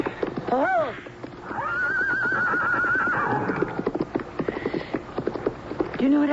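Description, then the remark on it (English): At dusk, a horse whinnies loudly, a long rising-and-falling neigh, followed by a steady clatter of hooves and rolling chariot wheels moving along, with a brief voice near the end. “Shall we go home? Oh, oh you take the reins.”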